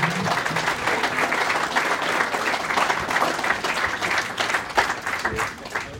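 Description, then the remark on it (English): A crowd applauds steadily for several seconds for a raffle winner, a dense, even wash of many hands clapping with no gaps. “Come back, round of applause, please.”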